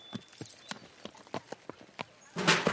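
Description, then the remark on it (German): Hooves of a skittish horse clatter sharply as it bolts onto the paddock, in a quick, uneven run of about a dozen hard strikes, ending in a sudden louder burst of rough, scraping noise. “Oh, so ein schreckhaftes Tier. Na, wenigstens ist sie auf die Koppel gelaufen, da kann sie ja nicht weg.”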